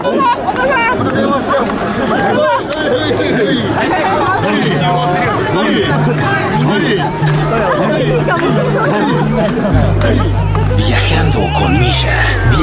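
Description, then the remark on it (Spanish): A dense crowd at a matsuri festival in Taito, near Asakusa, Tokyo, Japan, fills the scene with overlapping chatter and calls, while a steady low drone and rhythmic shouts accompany an omikoshi portable shrine procession moving through the throng. “Estamos cerca de Asakusa y los dejamos con este sonido ambiental de el omikoshi y este matsuri que estamos viviendo directamente en Tokio, Japón.”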